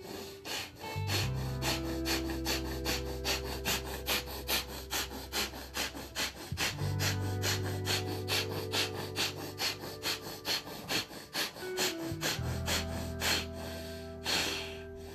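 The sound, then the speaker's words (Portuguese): Rapid, forceful breaths of a guided breathing exercise, increasing in intensity and speed, pumped out in a fast, steady rhythm, each one a short sharp rush of air, continuing for several seconds over a soft, sustained musical drone with no talking. “E aí, deixando o rosto descontraído, os ombros descontraídos e o abdômen também, você vai aumentar a intensidade e a velocidade desta respiração.”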